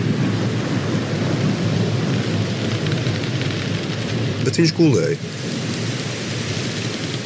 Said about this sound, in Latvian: Un viņš iekāpa laivā, un viņa mācekļi sekoja viņam, un redzi, liela vētra sacēlās jūrā, tā ka viņi laivai gāzās pāri.